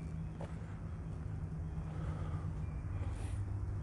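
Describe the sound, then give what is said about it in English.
A truck grinds up tree limbs about a block away, a steady low mechanical drone and rumble that fills the background without pause, loud enough to drown out the birds. “block away from a truck that is just destroying the limbs of trees, grinding them up.”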